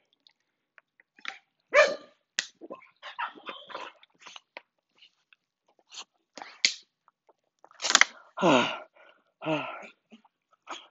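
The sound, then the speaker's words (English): Excited dogs, Oreo and Polly, greet their owner returning home, with several sharp barks, yelps and whines in quick bursts, plus scuffling movement and a person sighing and speaking softly between them. “Yeah, come here. Come here, hi, dogs, hi, hi.”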